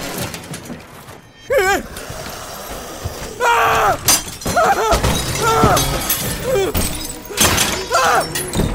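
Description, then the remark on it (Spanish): Glass shatters and heavy thuds crash repeatedly in a loud, chaotic burst of breaking as countless undead smash glass and doors, forcing their way into a warehouse, while wailing, groaning voices rise and fall over the smashing. “Los cadáveres comenzaron a apilarse uno por uno alrededor de la y lo que en un principio eran unos cuantos, ahora eran incontables muertos vivientes, rompiendo vidrios y puertas, abriéndose paso al interior de la bodega.”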